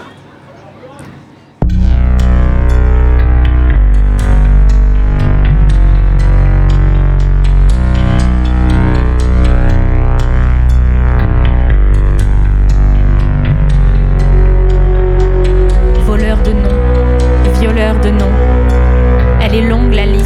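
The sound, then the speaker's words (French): After a brief quiet moment, a newly released song, out for about a week, plays on the radio station Radio Laser, loud and full, with dense sustained instrumentation and what sounds like singing carrying through to the end. “On va donc vous offrir enfin ce morceau. Il est tout frais, donc sorti il y a une semaine environ.”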